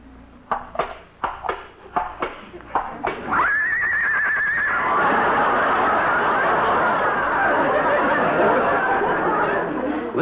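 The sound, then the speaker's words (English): A series of clip-clopping hoofbeats as Lillian, a horse, is brought out as the model for an art class, leads into a loud horse whinny that rises and trembles, then gives way to a sustained wash of crowd noise and laughter. “Lillian is a horse.”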